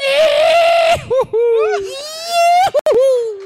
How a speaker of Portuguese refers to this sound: Prefeito, dá um grito para nós.